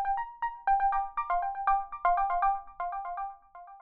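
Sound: phone ringtone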